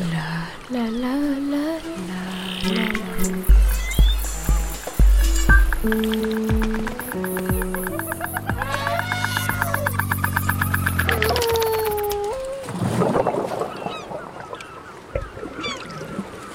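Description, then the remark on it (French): The little footsteps of a starfish (Asterias rubens) in water: squishy, watery steps patter along in a playful, cartoon-like sequence, mixed with honking tonal notes and rising and falling glides, ending in a burst of bubbly splashing. No one speaks. “Hum, j'entends comme des petits pas dans l'eau. Mais si, c'est l'étoile de mer.”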